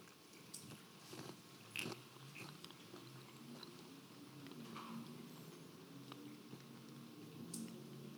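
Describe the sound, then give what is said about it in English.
Quiet chewing and crunching of a communion wafer during a Good Friday communion, with irregular soft bites and crackles over a faint hush, and no voices. “So let's take this together. Take, take the wafer.”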